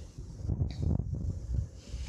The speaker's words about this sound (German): Ihr merkt schon, bei uns äh, weht der Wind. Ich versuche gerade abzuschätzen, ob der Wind uns zu sehr weht, aber eigentlich finde ich das hier gerade so schön, draußen zu sitzen.